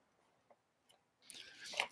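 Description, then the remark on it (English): A few faint clicks, then loud crunching as someone bites into and chews a crisp Tate's butter crunch cookie, a dense crackly burst filling the last half second with no talking. “These are butter crunch cookies, which uh, I've never tried.”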